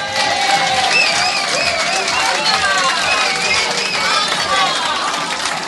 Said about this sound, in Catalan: Un aplaudiment per ella, sisplau.